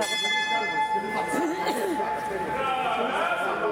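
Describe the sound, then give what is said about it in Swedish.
A fish auction bell is rung as an auction starts, a sustained metallic tone hanging over the whole moment, while a crowd of fish buyers chatters busily underneath. “Och sen drar en auktion igång och då ringer man i en klocka.”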